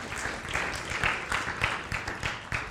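An audience breaks into a steady round of applause, many hands clapping at once in a dense, continuous patter with a few sharper claps poking through, moderately loud throughout.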